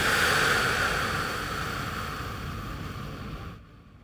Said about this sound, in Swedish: Kan vi ta ett djupt andetag, andas in Och andas ut.